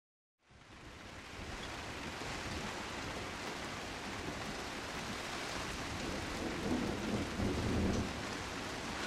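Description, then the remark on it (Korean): Heavy rain pours down in a dense, steady roar that starts abruptly and continues unbroken, with a faint low rumble swelling near the end. No voices are heard. “주전자로 양동이로 퍼붓는 듯한 비였다.”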